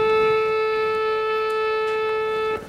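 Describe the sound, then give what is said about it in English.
A single steady, buzzy synthesized saxophone note with no attack or decay holds at one pitch for over two seconds, starting and stopping abruptly with no swell or fade. It is loud, with no talking. “The saxophone that you brought over looks like this, and I can play it to you.”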